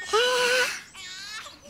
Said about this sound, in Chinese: 好像有呀，那边真的有婴儿的哭声。